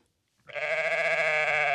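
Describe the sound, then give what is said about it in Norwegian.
A person imitates a sheep, letting out a single sustained, nasal bleat that starts abruptly after a brief silence and holds steady and loud. “Er det andre dyr som, lar seg, som man kan snakke med? Ja, sau.”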